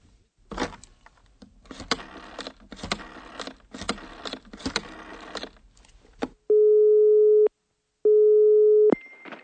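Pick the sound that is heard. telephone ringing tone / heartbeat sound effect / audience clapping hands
telephone ringing tone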